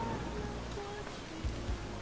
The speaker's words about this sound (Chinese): 怎么突然下雨啊？你没带伞？